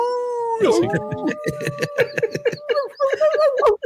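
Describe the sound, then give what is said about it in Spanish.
A person briefly imitates a wolf howl with a sustained, wavering voiced tone near the mic, quickly followed by laughter and lively chatter from several people. “Su despertador, ¿qué será? Un... Aúlla.”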